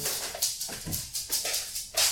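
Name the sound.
dog whimpering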